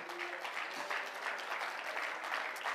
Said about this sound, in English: Praise God. Let's clap our hands and praise Him one more time.